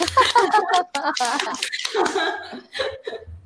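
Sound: canned applause sound effect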